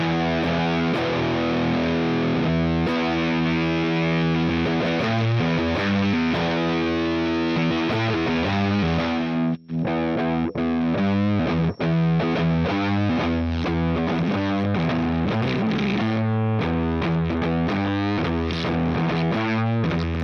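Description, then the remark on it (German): A heavily distorted electric guitar, played through a distortion effects unit, plays loud, sustained chords and riffs for about twenty seconds, with a gritty, saturated tone and a brief gap midway, no voices present. “Wir haben ja eben schnell den Sorgenbrecher angeschlossen und äh, die Gitarre”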